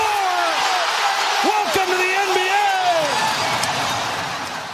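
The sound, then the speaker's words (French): A short NBA segment jingle built over arena noise, with a few sharp basketball bounces and thuds punctuating sweeping tonal sounds, loud and continuous throughout before easing slightly at the end. “Jingle.”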